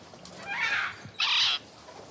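A parrot on a pirate's shoulder aboard an anchored pirate ship squawks twice, two harsh, raspy calls with a short pause between them, fairly loud against a quiet background.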